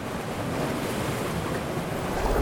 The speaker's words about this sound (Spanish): ¡Viene una ola! pero no puedo tomar la primera ola.